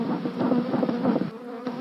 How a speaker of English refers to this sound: After lifting the top off one of the hives, she pumps a smoker to calm the agitated bees.